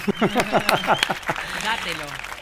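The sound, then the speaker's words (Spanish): A short burst of audience applause with scattered claps, mixed with laughter and voices talking over it, the clapping thinning out after about a second. “Daos un aplauso.”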